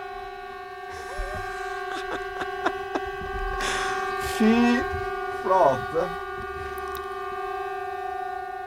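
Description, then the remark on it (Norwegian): An air raid siren sounds outdoors at twelve o'clock on a Wednesday as a steady, droning tone that holds throughout, with a few short bursts of voices speaking over it. “er det du sier Air Raid Siren, så går, uh, går den nå.”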